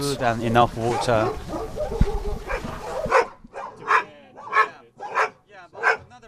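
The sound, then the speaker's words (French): Many dogs kept three or four to a cage in rusty grey cages, among several dozen cages, bark. A dense, overlapping chorus at first breaks into a steady run of loud, separate barks about every half second. “Trois ou quatre chiens sont parqués dans chacune des cages au gris rouillé.”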